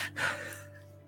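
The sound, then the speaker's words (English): A single voice imitates a dwarf snoring: one brief, rough, breathy gasping snort, fading into a low steady hum with no words spoken. “Have you heard a dwarf snore?”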